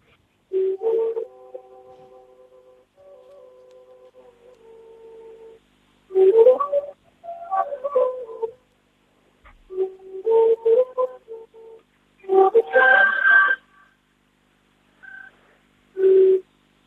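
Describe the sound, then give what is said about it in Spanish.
A double-chamber flute, whose bevel system differs from traditional flutes or quenas and whose double air chamber regulates air pressure, plays a soft pentatonic melody in short phrases over a constant low pedal note, with brief pauses between phrases and a slightly muffled, breathy tone. “Tiene un sistema de bisel diferente a lo que son las flautas tradicionales o quenas.”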